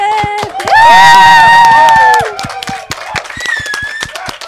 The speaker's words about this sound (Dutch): Dus we gaan klappen nu. Klappen!